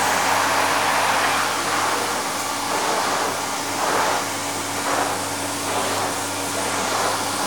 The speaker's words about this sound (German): Wir saugen Staub und erzeugen Geräusch.